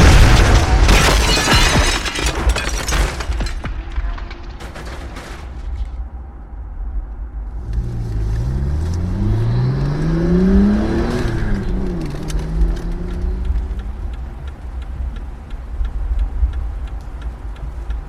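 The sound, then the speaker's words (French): A car pulls alongside another car on a road and rams it from the side, sending it into a tree: a loud crash with heavy crunching impacts and shattering debris, then an engine revs and rises in pitch before settling into a steady rumble. “Tout à coup, la voiture se met à leur niveau et les percute par le côté, les envoyant contre un arbre.”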